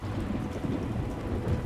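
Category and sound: nature, thunder and heavy rain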